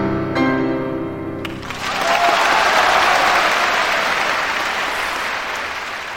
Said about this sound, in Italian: Anche in questo caso evidentemente è, è impossibile letteralmente resistere alla voglia di, di, applaudire a questo finale